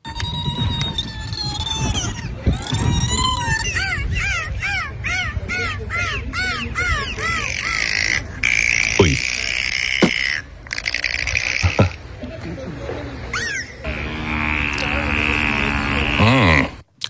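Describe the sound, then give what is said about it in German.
Dolphins squeak, whistle and click in a dense, continuous stream: rising and falling whistles repeat in quick succession, with sharp clicks and a buzzing, creaky call near the end, fairly loud. “und zwar sind die Delfine ja offenbar wahre Klangkünstler. Die können quäken, quieken, pfeifen, knarren, schnalzen, singen und noch vieles mehr.”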